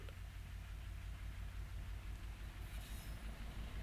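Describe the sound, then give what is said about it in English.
A train rattles steadily past on the tracks, by settlements on both sides of the line, a loud, continuous rumble with rhythmic clatter throughout and a faint high squeal of wheels creeping in near the end. No voices. “The sound of a train rattling past the settlements on both sides of the tracks, over which a heavy and stony silence had settled, brought back the hope of life again.”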